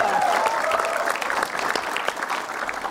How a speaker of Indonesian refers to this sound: Tepuk tangan yang lebih meriah lagi.